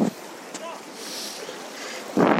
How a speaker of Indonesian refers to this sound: saat ini gue sedang di waktu senja dengan ombak yang lumayan gede karena gue sekarang ada di daerah pantai di mana pantai ini paling dekat dari pusat kota Mataram